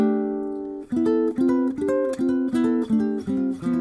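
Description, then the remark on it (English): A sustained chord rings out, then a steady, evenly paced run of about seven quartal chord voicings with C on top follows, harmonizing C major in fourth intervals, played clear on a stringed instrument with no talking. “instead of C on the bottom, if I put C on the top, it sounds really cool too, which is what most people use.”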